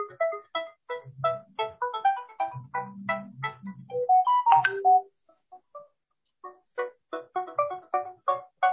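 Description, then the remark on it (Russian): A phone ringtone for an incoming call from a rabbi plays a melody of quick, bright repeated notes, pausing briefly midway before resuming, clear with no one talking. “Сейчас пытаемся понять, откуда Рав нам звонит.”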